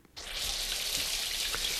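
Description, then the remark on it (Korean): Steady shower water pours and hisses continuously after a brief quiet start, an even rush from a shower as someone showers, with no voices. “샤워하는 물줄기 소리를 듣고 있다 보니 어제 밤새 마신 맥주와 소주들이 뱃속에서 나가고 싶다 손을, 어, 신호를 보내더군요.”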